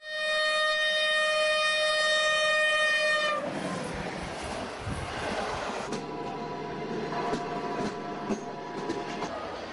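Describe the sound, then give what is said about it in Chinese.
A train bringing back a fugitive caught after fifteen years on the run passes: a loud, steady horn blares for about three seconds, then gives way to a continuous rumbling clatter of rolling cars with faint metallic squeals. There is no talking. “火车载回了逃亡十五年的布都逃犯张东，也载回了公平和正义。”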